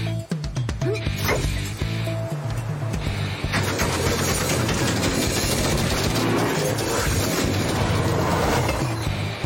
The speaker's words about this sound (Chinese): 大家将嘻哈火车的动力开到最大吧，也许就能挣脱了。 好，嘻哈火车全速前进。